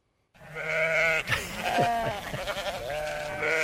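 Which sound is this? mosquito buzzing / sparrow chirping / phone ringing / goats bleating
goats bleating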